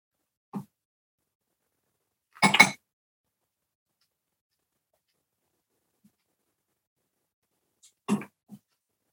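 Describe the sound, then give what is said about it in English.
A harsh, choking cough bursts out after a short throat sound as a person eats level five hot chili peppers, followed by a long silence and then another rough cough with a small gasp; no talking in between. “I'm choking here. I'm choking here.”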